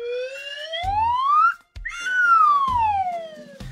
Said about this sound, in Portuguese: Era um, era um apito que era meio flauta. Era um, um intermédio entre apito e flauta. Um intermediário, né? Flapito.